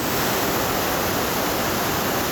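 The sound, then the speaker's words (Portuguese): Floodwater pours down the stairs of a train station in a steady, roaring rush like a small waterfall, loud, continuous throughout with no voices. “A escadaria dessa estação de trem se transformou em cachoeira.”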